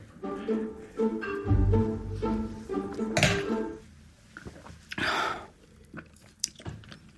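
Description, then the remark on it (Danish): Quiet mouth sounds of someone sipping a drink, with small slurps and a light clink of a glass or cup amid soft handling noises; nobody speaks. “Jeg tager altså lige en slurk med.”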